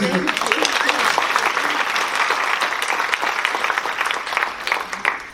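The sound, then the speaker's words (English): Steady audience applause fills the whole stretch, a dense, even clatter of many hands clapping at a fairly loud level without pause for about five seconds. “Let's applaud.”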